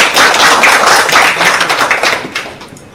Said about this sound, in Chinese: 那我们先再来一次热烈的掌声，好吗？